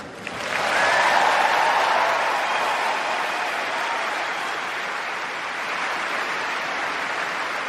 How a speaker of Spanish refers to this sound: con una gran ovación de pie dentro del gremio